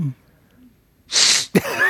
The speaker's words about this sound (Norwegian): Jeg, det var et snufs. Jeg, jeg beklager til alle som, som hører på.